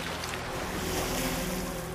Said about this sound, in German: Auf der anderen Seite des Schiffes hörst du, dass etwas Wasser aufspritzt. Und du siehst eine Gruppe von Delfinen, die entschieden haben, dich auf deiner Fahrt zu begleiten.